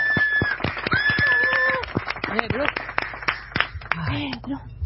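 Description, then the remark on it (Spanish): Scattered, irregular hand claps ring out, mixed with a few whistles and lively voices calling out over them. “Me sangra las manos de aplaudir.”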